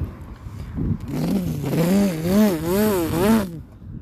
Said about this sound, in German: Hörst du das? What the f... Das klingt wie ein Motorrad.